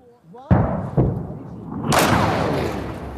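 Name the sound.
artillery shell explosion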